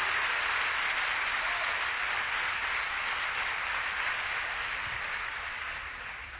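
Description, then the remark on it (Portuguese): An audience applauds the Lord in a steady, dense wash of applause that holds for several seconds and tapers off slightly at the end, with no voices standing out. “Você pode aplaudir o senhor, amado, porque isso é digno de, de glória mesmo?”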